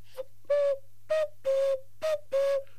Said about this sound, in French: donc on a vraiment, euh, on retombe sur notre coucou. Euh, donc le, sifflet à air. très alsacien. C'est très alsacien.